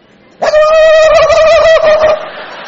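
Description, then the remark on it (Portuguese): A voice imitates the high, warbling ululation African women make by rolling the tongue: a single loud, sustained trill of about a second and a half that wavers rapidly in pitch, then cuts off, leaving faint background noise. “A mulherada, as africanas enrolam a língua e fazem um barulho que eu não sei como é que é.”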